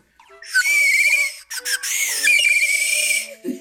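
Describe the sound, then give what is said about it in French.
A bird-call whistle, played by a percussionist in an orchestra rehearsal in place of a flute part imitating a bird, warbles and trills in bright, high tones, with a short break near the middle before the fluttering call resumes, loud and without any voices. “Et c'est plutôt que le flûte, essayons le, euh, le souffle de, de l'oiseau.”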